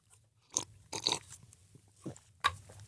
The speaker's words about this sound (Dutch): Ja, we hebben dus een slokje. Prachtig.